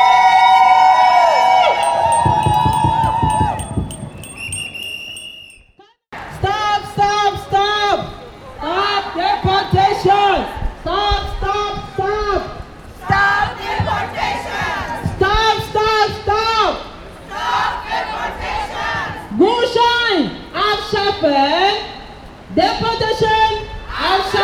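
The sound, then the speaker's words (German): A crowd of about 150 demonstrators on a feminist march through Kreuzberg, Berlin, chants slogans in unison, loud and rhythmic with short pauses between phrases, after a brief opening of mixed street noise and a cutoff. “zogen ca. 150 Menschen unter der Parole "Feministische Kämpfe gehen uns alle an!"durch den Berliner Bezirk Kreuzberg”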